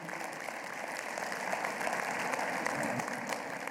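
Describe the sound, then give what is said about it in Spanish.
An audience applauds the Lord together, a dense, steady wash of many hands clapping that holds at an even, moderate loudness for a few seconds with no voices over it. “De un aplauso al Señor.”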